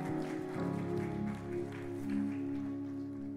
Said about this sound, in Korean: 전능하신 하나님 아버지께 우리 최고의 영광의 박수 올려드리겠습니다. Let's give the greatest glory of applause to the Father God who answers the prayers of the reverence.